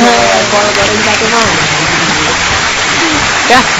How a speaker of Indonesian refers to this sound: buat yang dengerin dong kasih tepuk tangan dikasih tepuk tangan nih buat yang dengerin